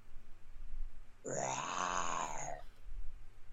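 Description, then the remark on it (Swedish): A single drawn-out vocal roar, made by a person imitating a beastly bellow from an abyss, swelling and fading over about a second and a half; rough and growling, with no speech around it. “Sen hördes ett vrål från avgrunden.”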